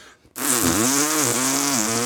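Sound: voice imitating a chainsaw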